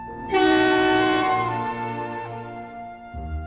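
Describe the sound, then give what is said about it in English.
A loud truck horn blares for about a second, then trails off into the low, steady rumble of a heavy engine, which swells again briefly at the end. “There are no dogs, no trucks,”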